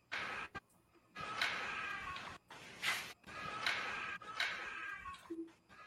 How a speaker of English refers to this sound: I call it the cat cry. It's the first time I ever caught any kind of animal on, on audio